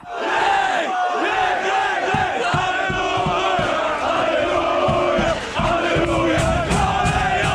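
Lech players belt out a loud song together in their locker room after the match in Charleroi, voices overlapping in a rowdy, continuous chant with rhythmic thumps or claps underneath.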